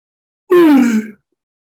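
One short, loud voiced yawn, its pitch sliding downward with a breathy edge as it trails off, then silence. It sounds like a person deliberately imitating a yawn, made by a preacher during a sermon.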